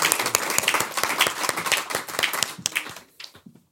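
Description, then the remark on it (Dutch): An audience applauds a neighbourhood resident. Dense, crackling handclaps hold steady for about three seconds, then thin out and fade to a few scattered claps. “Mag ik nog één applaus voor onze buurtbewoner?”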